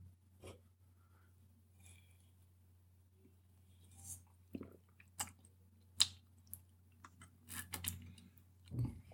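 Close, wet mouth noises of someone chewing, with soft smacks and squishy clicks scattered irregularly over a low steady hum, growing busier toward the end, with no talking.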